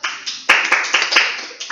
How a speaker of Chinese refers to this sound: 来，大家掌声。